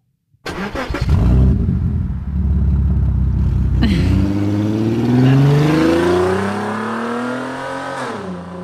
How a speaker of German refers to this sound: Pass mal gut auf. Also das eine Geräusch kennst du und das andere Geräusch ist neu, weil du warst noch nicht im Van, seit ich bei Luca von Optimized Car war. Ui. Pass mal auf. Früher klang unser Van so. Und jetzt klingt unser Van so.